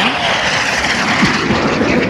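A loud, steady jet roar, like a fighter plane passing overhead, fills the whole moment with a dense rushing engine noise and no voices.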